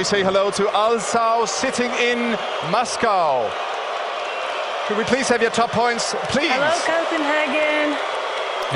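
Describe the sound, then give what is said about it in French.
A large indoor audience at the 2014 Eurovision Song Contest in Copenhagen boos Russia loudly and continuously, a dense roar of jeering voices filling the hall while a single amplified voice carries on over the noise. “Vous entendez bien, en 2014, en direct de Copenhague, la Russie se fait huer sans vergogne par l'ensemble de la salle.”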